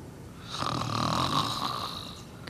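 A single drawn-out snore from a mother asleep, rising from about half a second in, a raspy breathy rumble with a faint whistling edge, then fading toward the end. No one speaks.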